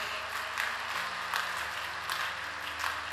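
A crowd of people applauding steadily together, a dense wash of many hands clapping at once with no voices rising above it, clapping in praise to God.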